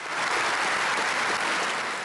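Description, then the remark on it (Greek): Sustained applause from a large assembly in parliament, the Prime Minister, ministers and MPs standing to applaud the Ukrainian President; steady dense clapping with no pauses or voices, loud and even throughout. “Ο Πρωθυπουργό, Υπουργοί και βουλευτέ σηκώθηκαν όρθιοι για να χειροκροτήσουν τον Ουκρανό Πρόεδρο.”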